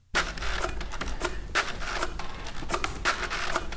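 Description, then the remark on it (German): Pins of a braille display that does not use the usual piezo system mechanically set dots as the display builds up, making a steady stream of rapid clicking and ticking, with sharper, louder clacks roughly every half second. No voices. “Das heißt, auch dort dauert der Bildaufbau leider einen Moment und es ist auch mit einem gewissen Geräuschpegel verbunden, weil die einzelnen Punkte mechanisch gesetzt werden.”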